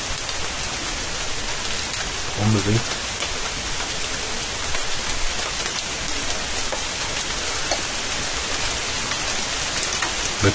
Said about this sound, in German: Aber es ist schon weniger Regen geworden.